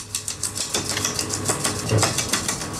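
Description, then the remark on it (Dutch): A cement mixer runs, mixing cement with water into a slack, dough-like mixture, with a steady low hum beneath a busy, irregular clatter of sharp clicks and knocks as the material tumbles inside, moderately loud, with no talking. “Nou, en nou ga ik even de mixer aanzetten.”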